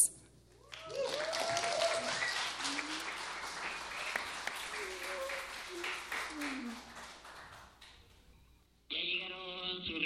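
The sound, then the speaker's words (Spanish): A concert crowd at a concert broadcast on Radio Universidad breaks into loud, dense applause lasting about eight seconds, with scattered cheering voices mixed in, then it tapers off as a sustained musical tone starts. “Un aplauso para ustedes, por favor, por venir.”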